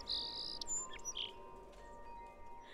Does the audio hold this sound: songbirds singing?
yes